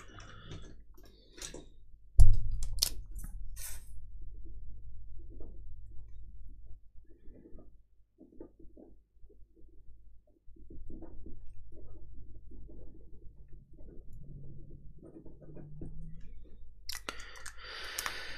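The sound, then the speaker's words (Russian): A pencil is handled, with a sharp loud click near the start followed by scattered softer clicks, taps and rustling over a low steady hum, and no one speaking. “Что это, блин, за карандаш? Откуда он взялся здесь?”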